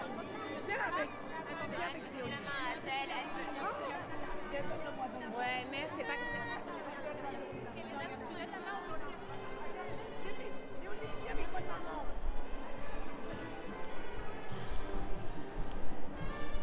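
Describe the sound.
A lively crowd chatters outdoors outside a church after a service as a group prepares to leave together by bicycle, many overlapping voices, with a few speakers briefly standing out from the steady babble.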